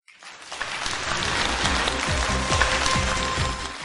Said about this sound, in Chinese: 听懂的再次掌声鼓励一下。